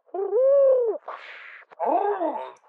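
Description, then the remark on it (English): A loud, forceful owl-like hoot, then a breathy hiss like an engine and a second wavering hoot, all fairly loud; it sounds like a person imitating the calls with their voice. “then a violent hooting, and then again, after a quiet interval, a hissing like the hissing of an engine.”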